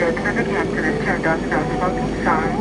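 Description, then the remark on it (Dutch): A loud, steady roar of a jet airplane engine flying to Moldova fills the whole stretch, with a wavering whine riding on top and faint muffled voices beneath it. “met vliegtuig.”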